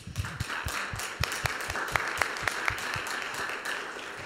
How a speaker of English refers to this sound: we should all give her a round of applause because.